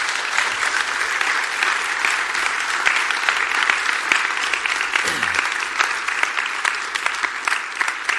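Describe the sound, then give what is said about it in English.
Sustained audience applause for guests in the morning, a dense, steady patter of many hands clapping at even loudness for several seconds, with no talking over it. “Can you give our, our guests a round of applause this morning?”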